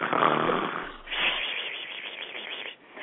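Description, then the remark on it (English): A voice imitates loud, exaggerated snoring: a long rasping inhale, a brief pause, then a second drawn-out snore, with no talking in between. “And then I snore.”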